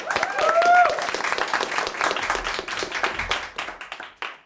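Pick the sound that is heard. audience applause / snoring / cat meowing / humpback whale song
audience applause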